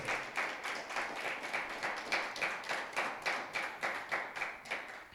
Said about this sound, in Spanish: Y desde Allentown, Pensilvania, la Iglesia Café le envía un fuerte aplauso a todos los que nos están viendo o nos van a volver a escuchar o a ver.